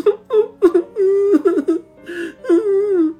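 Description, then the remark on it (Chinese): A small child whimpers and cries inside a car in the rain, in a series of short, high-pitched wavering wails, broken by brief catches of breath, with no talking over it. “车内还是不时传来老人的咳嗽声，以及小孩的啼哭声。”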